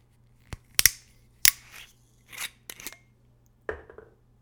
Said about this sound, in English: I'm pretty excited to open this, to be honest. Okay, it's got a metal screw cap, so let's open it up.